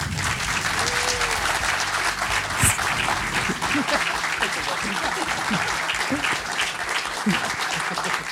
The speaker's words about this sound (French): Je vous demande un tonnerre d'applaudissements pour Arnaud.